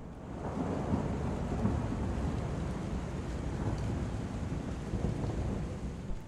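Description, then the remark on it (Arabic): A steady, dense roar of unusually heavy rain pours down without a break, with a deep rumbling undertone like thunder. No one speaks. “بس في يوم بعد فترة السما مطرت بغزارة شديدة ما حصلتش قبل كده”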